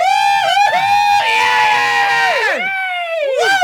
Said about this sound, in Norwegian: Nå vil jeg at dere bare skal juble. Dere skal juble så høyt dere bare kan. Det skal ikke være pent. Ikke pent i det hele tatt. Det skal bare være volum på det her sånn. Ikke noe klapping, bare jubling.